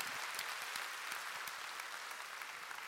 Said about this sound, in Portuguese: Quem, vou perguntar, vou, vou, quem já está sendo restaurado por Deus nesse processo? Quem pode dar um aplauso a Ele por isso, em nome de Jesus?